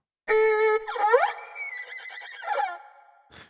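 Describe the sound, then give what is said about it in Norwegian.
A single loud horse whinny from a music app, played by pressing a picture of a horse on the screen, starting with a high sustained squeal, then wavering and warbling downward before fading, followed by a short breathy snort. No one speaks over it. “Så for eksempel Og min favoritt, bildet av en hest.”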